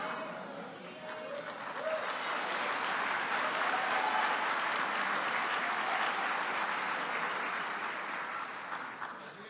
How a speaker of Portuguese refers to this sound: Vocês estão aplaudindo porque vocês querem, né? Não é porque eu pedi, não, né?